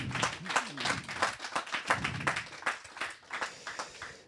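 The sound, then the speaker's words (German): An audience claps for someone who has just spoken about being baptized, in a steady, slightly uneven patter of sharp hand claps, moderately loud, with some voices murmuring underneath during the first half before the clapping continues alone. “ja, liebe klatschen.”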